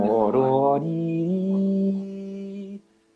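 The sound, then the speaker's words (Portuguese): A dominant seventh chord, a major chord with a minor seventh, rings out as its notes come in quickly one after another, then sustains steadily for about two seconds before cutting off. “lá com sétima maior tem o acorde maior com a sétima menor. Pororiri, sétima menor. Tá ouvindo o acorde?”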